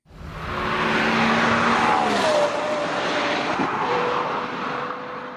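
A car engine revs loudly and steadily, its pitch climbing and then sliding back down over a broad roar of road and motor noise, with no voices.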